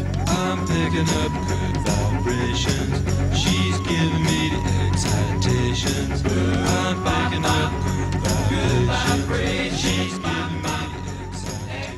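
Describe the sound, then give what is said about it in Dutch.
An electro-theremin, a variation on the theremin devised in the 1950s, sings a high, smooth melody that swoops upward into long held notes, repeating every few seconds over a full, steady pop band backing with drums and bass. “Eigenlijk was wat je net hoorde geen echte theremin, maar een electro een soort variatie op de theremin die in de jaren 50 werd bedacht.”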